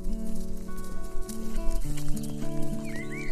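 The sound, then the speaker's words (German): The hooves of two light-brown horses clip-clop in a steady, uneven patter that grows slightly louder as they approach, over sustained soft musical tones, with a few bird chirps near the end. “Hufgetrappel. Tatsächlich. Als du deine Augen wieder öffnest, siehst du zwei hellbraune Pferde auf dich zukommen.”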